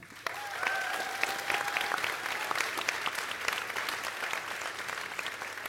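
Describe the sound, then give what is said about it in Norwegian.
An audience at a debate claps steadily in place of a topic-change jingle, a dense, even crackle of many hands that holds at a fairly constant level throughout, with a brief whistle tone rising over it near the start. “Men dere kan gi dem en skikkelig fin applaus istedenfor.”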